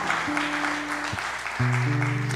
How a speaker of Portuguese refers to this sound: Se você recebe isso, dê uma salva de palmas palmas a Ele.